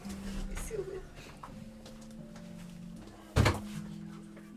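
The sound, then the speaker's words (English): A door shuts with a single solid thud about two-thirds of the way through, standing out sharply against a quiet, steady background hum. “The seal door.”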